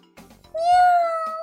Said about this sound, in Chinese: 大肥猫。突然一下子站住了，喵！大肥猫憋足了劲儿，用最最可怕的声音叫起来：